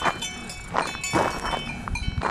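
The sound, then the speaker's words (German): A cowbell on a cow in a grazing herd clanks irregularly, several dull metallic rattles in a row, like the cow moving its head, heard outdoors with a soft background hiss. “Oh, noch eine Kuhglocke.”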